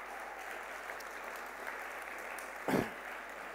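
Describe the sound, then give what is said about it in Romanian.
A church audience applauds to welcome members of the church who are about to speak, a dense crackle of many hands clapping at an even level throughout, with a brief low thump near the end. “Ei s-au pregătit și sper să-i primiți cu aplauze, au emoții, ei sunt parte, sunt parte din biserica noastră și vreau să-i încurajați.”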